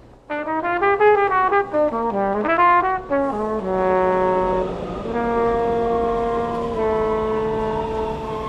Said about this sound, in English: at the UDC Metro Station, trumpet and flugelhorn.